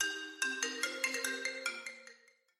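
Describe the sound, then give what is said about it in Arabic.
A mobile phone ringtone plays in an upstairs room of a rented house in Scotland, a quick melodic run of bright, chiming notes, about a dozen in succession, moderately loud, then rings out and fades with no voices. “وفجأة نطق نطق جوالي الذي كنت أنظر إليه وينظر إلي مدة أربع دقائق كلها توتر”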